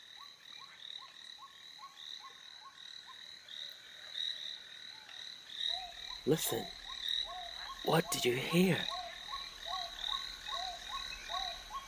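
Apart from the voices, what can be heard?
frog croaking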